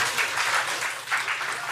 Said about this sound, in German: Wieder ein Jubelschrei im Rathaus. Ähm diesmal von den Befürwortern.